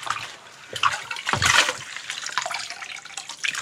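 Water splashes and sloshes against a metal wok being scrubbed, with a louder surge of running water midway, continuous throughout.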